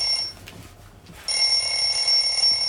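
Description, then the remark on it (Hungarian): A phone rings with an incoming call from a caller, a high electronic ringtone: a short burst, a brief pause, then a steady, fairly loud ring that continues to the end. No one speaks. “Hoppá, itt már van egy telefonáló.”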